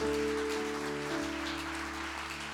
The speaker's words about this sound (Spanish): Denle un aplauso bien grande a su Señor en esta hora.